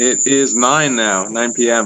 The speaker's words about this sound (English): So you might hear some crickets in the background. Cause I, uh, yeah, they're pretty loud actually.